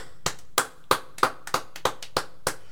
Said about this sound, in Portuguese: Uma salva de palmas para todos os aniversariantes.